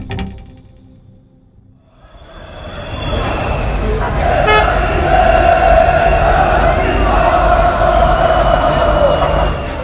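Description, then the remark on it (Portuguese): After a brief quiet moment, a large outdoor crowd of Croatian football fans outside the Luzhniki stadium in Russia, after a match has ended, swells into loud, continuous singing and chanting, with horns tooting through the din. “Essa cantoria toda que vocês estão ouvindo é dos torcedores croatas.”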